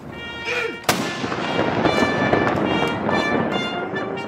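A single loud cannon blast booms out as the first shot of a 21-gun welcome salute at the royal palace, its sharp crack followed by a long echoing rumble over a steady wash of outdoor crowd noise from a cheering, flag-waving crowd.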